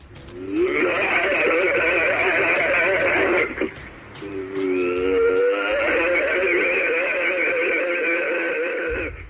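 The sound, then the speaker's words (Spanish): Recorded alleged Sasquatch vocalizations: two long, loud, wavering howl-like cries with a brief pause between them, sounding harsh and somewhat radio-filtered, with no speech. “Escuchamos este, dicen, es el verdadero sonido del Sasquatch.”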